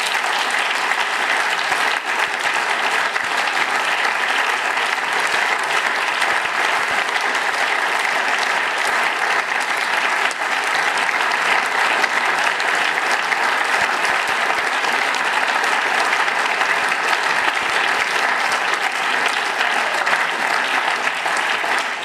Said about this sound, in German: Applaus